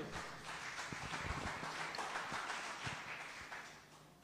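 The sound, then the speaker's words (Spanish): A church audience applauds the volunteers steadily, a dense wash of many hands clapping at once that holds for several seconds and then begins to thin out toward the end. “Ok, un aplauso a los voluntarios.”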